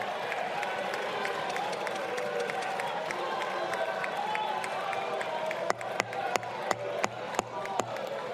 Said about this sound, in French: Voilà, il a été applaudi par quelques-uns. Euh, beaucoup hué surtout.